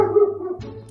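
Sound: dogs barking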